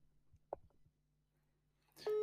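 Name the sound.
telephone call ringing tone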